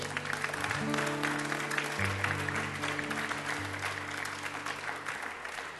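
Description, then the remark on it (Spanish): A church audience applauds God loudly at the close of a sermon, in a steady, dense wash of clapping that lasts throughout, while sustained low keyboard chords hold underneath and shift a couple of times. “Da un aplauso fuerte a nuestro Dios.”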